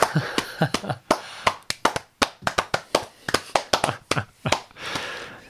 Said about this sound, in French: Ah, je, me Sens, obligé d'applaudir parce que.